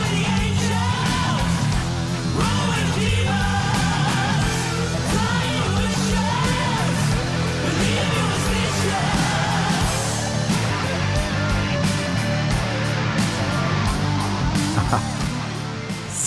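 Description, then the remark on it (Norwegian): A heavy rock song plays loud and dense throughout, driven by dark, distorted guitar riffs over a thick low end, with no talking over it. “heavyrock-modus med mørke riff og toner”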